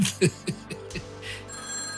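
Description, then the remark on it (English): An old hand-dial telephone bell rings for a call to Paris in a rapid rattling burst of clanging strikes, then gives way to a lingering steady tone with no voices. “A few minutes later, ring, ring.”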